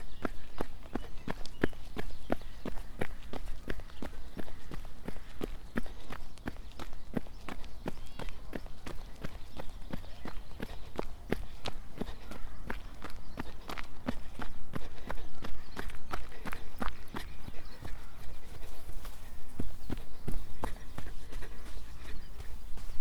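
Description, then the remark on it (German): Steady footsteps on a macadam path, a continuous run of crisp, evenly spaced steps with a gritty scuff to each one, holding a brisk rhythm and moderate loudness throughout. “Makadamweg.”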